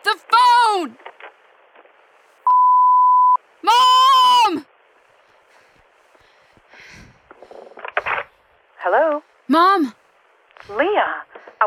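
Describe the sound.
A telephone off-the-hook tone sounds once as a steady, clear electronic beep lasting about a second, between loud, wavering vocal cries and bursts of voice.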